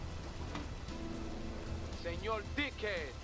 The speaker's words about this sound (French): Celui qui a rendu tout ça à la mode, c'est GTA 3. Bon, la pluie, elle est un peu dégueu, mais les reflets sur la route, c'est magnifique.